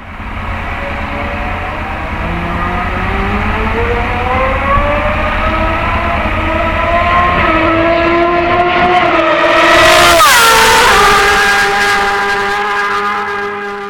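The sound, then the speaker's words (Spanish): Racing motorcycle engines rev and climb in pitch as they approach, peaking in a loud roaring pass before the tone drops away, with no one speaking. “poniendo el sonido de las motos y tal.”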